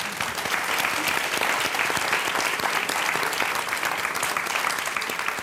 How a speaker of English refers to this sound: Zócalo just turned 16 years old last month, but we'd like to wish UCLA a happy 100th birthday this weekend. So, a round of applause for UCLA.